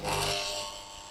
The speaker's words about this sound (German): Und das rühren wir jetzt schon mal schön hier in der Maschine. Ich habe jetzt hier so ein. Kann ich auf eins stellen? Das mache ich jetzt. Uh, ist das schön laut.